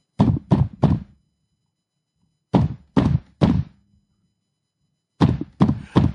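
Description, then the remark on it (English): Three sets of three heavy, forceful knocks pound on a door down the hall aboard a boat that has arrived in Bari, Italy, each burst separated by a pause of silence. The blows are loud, low and thudding, with a short resonant tail. “I began packing away the last of my things when I heard knocking on the door down the hall, too forceful to be housekeeping.”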